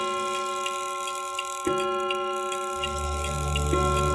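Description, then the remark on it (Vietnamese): A clock ticks steadily and evenly at 12 midnight, then a resonant chime-like strike rings out partway through over a sustained musical drone that swells with a low rumble toward the end. “Đồng hồ lúc này đã chỉ 12 giờ đêm”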